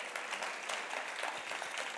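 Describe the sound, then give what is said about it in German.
A crowd gives another round of applause, dense overlapping hand claps forming a continuous roar of clapping, with no one speaking over it. “Aber gebt ihr nochmal einen Applaus.”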